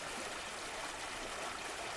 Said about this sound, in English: To her surprise, Nimue waved her arms, and the water surrounding them both receded back towards the lake with a gentle rush.